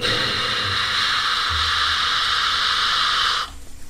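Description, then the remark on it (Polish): Steady, loud radio static hisses for about three and a half seconds after the signal is lost, a broad wash of noise that cuts off abruptly, leaving near silence. No voices are heard. “Nie mamy ich, zgubiliśmy sygnał.”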